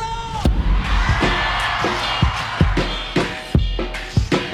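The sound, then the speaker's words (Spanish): A large crowd in Mexico lets out long, wavering ranchero-style yells and whoops in answer to a call for a ranchero yell, loud and sustained, over a thick roar of cheering with heavy booming thumps recurring throughout. “México quiero escuchar un grito ranchero.”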